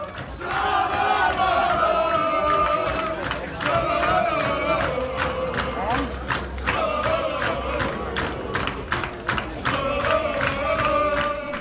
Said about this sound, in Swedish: Väldigt hängivna fans där, André Martins eh, fanclub som vi hörde i Umag där. Mycket hängivna. Och hade kanske druckit lite för mycket.